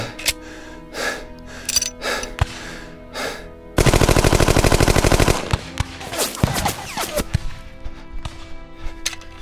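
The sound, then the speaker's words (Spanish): Rapid bursts of gunfire crack loudly, with scattered single shots early on, then a sustained automatic volley of dozens of shots, followed by more sporadic cracks and bullets whizzing past a person. “se escuchaban las balas rozándome.”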